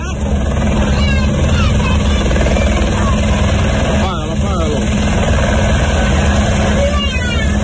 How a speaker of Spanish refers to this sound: Ese es el momento que este helicóptero está tratando de tirarse.